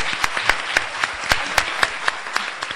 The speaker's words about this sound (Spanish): Muchas gracias a ustedes. Gracias. Un aplauso para ella, por favor, muchachos.